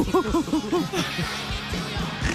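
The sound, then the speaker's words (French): A person voices a monkey-like jungle call: a quick run of rising-and-falling hoots, about five in a row, loud, then trailing into breathy, noisier yelps. “C'est ça que je fais. C'est mon bruit de jungle”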